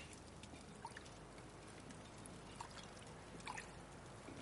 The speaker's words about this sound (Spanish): En su alcoba, Juana echa agua en una jofaina. Se lava las manos.